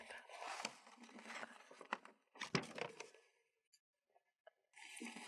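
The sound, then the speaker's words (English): Crisp crinkling and ripping of fresh wrapping paper for wrapping presents, in dense bursts for about three seconds, a short pause with a few faint ticks, then another burst of rustling at the end. “Nothing like fresh wrapping paper.”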